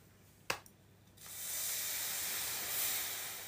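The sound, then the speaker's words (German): During a short sauna infusion, water splashes onto hot sauna stones with a sharp crack, then a steady, bright steam hiss swells and holds for a few seconds, with no voices. “kurzer Aufguss hier. Wir, machen, wir sind gerade in der Sauna.”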